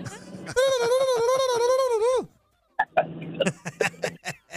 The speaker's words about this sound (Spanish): Pavo, pavo, puro pavo.